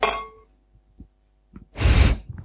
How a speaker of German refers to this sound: Da haben wir uns mal anstoßen hören.